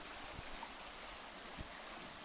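A steady, continuous rush of stream water flowing down from Vederslövssjön lake toward the site of a former mill, a soft even hiss with a faint low rumble underneath and no voices.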